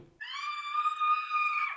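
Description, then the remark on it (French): A woman who is afraid of heights and at high altitude lets out one long, piercing scream, held steady at a high pitch for about a second and a half before dipping at the end. It is loud, with no talking. “ne peut s'arrêter de hurler que quand elle n'a plus de voix.”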